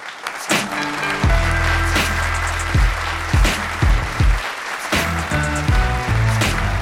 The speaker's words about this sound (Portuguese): Portanto, eu quero uma grande salva de palmas para esta grande convidada, por favor.